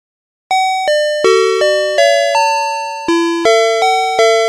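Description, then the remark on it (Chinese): A Family Mart convenience store door entry chime plays its bright electronic melody, about ten clear bell-like notes in a steady rhythm with one longer held tone midway, loud and with no voices. “据说他们的每一个商店的，它的你进来的时候，它声音会有不一样。”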